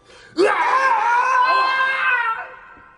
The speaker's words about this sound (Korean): 그리고 이어지는 불량배 셋의 죽어가는 비명소리.